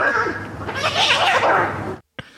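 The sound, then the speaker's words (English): A voice mimics a cat fight, letting out about two seconds of loud, strained yowling and screeching, then cuts off abruptly with a brief trailing squeak. “it's a cat battle.”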